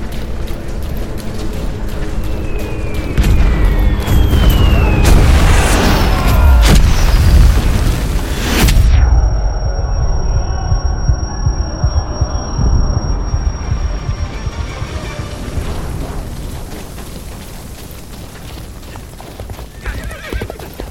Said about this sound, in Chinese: 空袭就不能精准点吗？都打着自己人了。